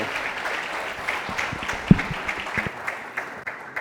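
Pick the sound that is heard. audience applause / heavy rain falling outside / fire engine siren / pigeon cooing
audience applause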